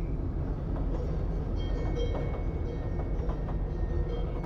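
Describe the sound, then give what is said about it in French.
A train rolls steadily along the rails into a dense forest with a constant low rumble and faint metallic clicks and squeals, heard from inside at a moderate, even level with no voices. “le train pénètre une forêt plus dense et tout devient noir.”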